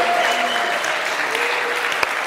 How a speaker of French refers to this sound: Si Jésus rentrait là, qu'est-ce que vous ferez Qui se lève Je vous invite à vous lever et applaudir. Faire un peu de bruit comme si Jésus rentré.